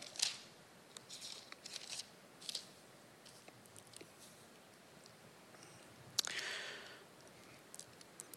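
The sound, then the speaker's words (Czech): Thin Bible pages rustle and flip in a few short, uneven bursts as someone turns them with one hand to find Hebrews chapter 11, with a sharper crisp turn near the end, quiet with no talking. “Musím jednou rukou nalistovat.”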